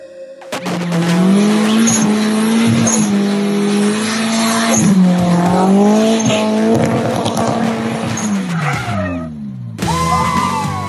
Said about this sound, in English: Absolutely shredding it and uh, having a good time doing that at a wedding, by the way, which is the correct time to do donuts and all of the above.